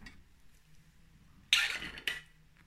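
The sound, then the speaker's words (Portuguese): Someone drinking water: after a quiet pause, a bright rustling, splashy burst lasts about half a second, followed by a sharp clack like a glass or bottle being set down. No talking. “Espera aí, deixa-me beber água.”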